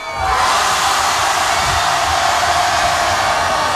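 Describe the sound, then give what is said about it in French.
A huge crowd at a festival in Marseille, France, roars and cheers continuously at night to make noise for a performer, a dense wall of shouting and screaming that stays loud and steady from start to finish with no individual voices standing out. “Alors du bruit Encore une fois Marseille du bruit”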